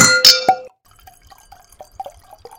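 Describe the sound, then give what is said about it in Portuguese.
Wine glasses clink together in a bright, ringing toast at the start, followed by a few quieter clinks and soft liquid sloshing sounds with tinkling tones. “E os nossos nosso vinho aqui, nossa nosso review vinho, ao isso. vivo do vinho. Tintim, então, tá amiga.”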